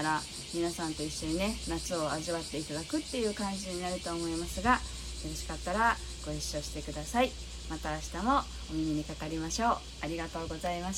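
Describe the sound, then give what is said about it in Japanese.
Cicadas drone steadily in the background, a continuous high buzzing chorus that never lets up, while a person speaks over it throughout. “明日もねきっとしばらくは晴れると思うのでねこんな感じでセミの声を聞きなが”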